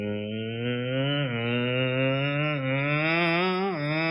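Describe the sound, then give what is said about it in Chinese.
A voice imitates a petrol lawnmower engine with a steady, buzzing low drone that lasts about four seconds, dipping briefly in pitch twice, like an engine revving down and back up. “这什么声呢？这是我家剃草机的声音。”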